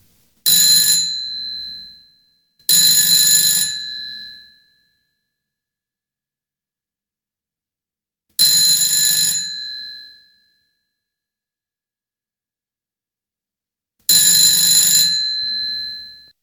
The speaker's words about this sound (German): Geht es dir eigentlich auch so, dass diese Klingeltöne scheinbar immer länger und ungeduldiger werden?